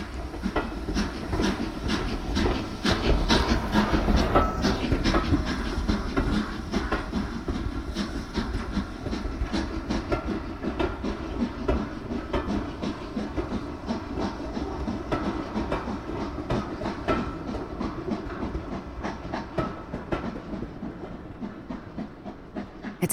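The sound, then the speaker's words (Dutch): A moving train pulls away from a station platform, rumbling and clattering steadily along the rails, with dense rhythmic clicks and a hissing wash of noise, loud throughout, easing slightly toward the end; no one speaks. “Terwijl deze wegrijdt, ziet Sylvie haar opa, die hen op het perron uitzwaait en nog een klein stukje met de rijdende trein meerent, uit het zicht verdwijnen.”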